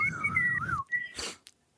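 A person whistles a short tune that holds a steady pitch, slides downward, then gives a brief higher note, followed by a soft breathy puff of air.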